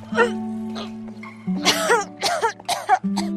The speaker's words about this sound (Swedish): Nu står hon mitt på gatan och får alltså en spyattack mitt i centrala Ängelholm, ute på gatan liksom vid mataffären.